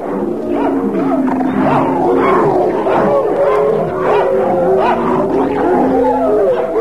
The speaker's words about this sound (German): Wilde Hunde und Wölfe. Wo kommen die her und warum sind die so wild? Ich kann es euch erklären. Diese Aufnahmen sind in Kreuzberg entstanden.